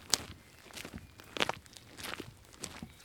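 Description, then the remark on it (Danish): Footsteps walking at a steady pace, several crisp crunching steps in a row with a couple of sharper, brighter scuffs, moderately loud with no talking. These are the first steps on the Camønoen walking route, going from the door of Møns Museum out through the old town gate on Møn. “de allerførste skridt på Camønoen går fra døren på Møns Museum og ud gennem den gamle byport.”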